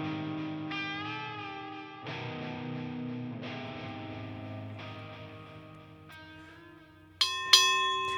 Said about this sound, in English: There it is. That is the sound of bell for round number nine of fight number six, Pacific Coast Boxing.